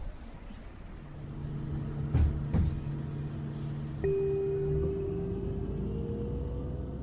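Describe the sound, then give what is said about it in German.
Steady low engine rumble inside a moving city bus, with two dull knocks early on and then a rising motor whine that holds to the end. No one speaks. “Ein schönes Gefühl, diese Fahrt mit dem Bus.”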